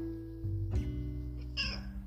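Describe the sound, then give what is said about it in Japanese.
A cat named Tom, sitting on a person's lap, meows once or twice, a short harmonic cry rising and falling over a low steady hum, with no talking. “なんかこう猫って、なんか人の言葉とか理解はしてるかわからんけど”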